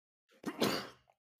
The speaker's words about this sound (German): Gesundheit. Danke. Gesundheit.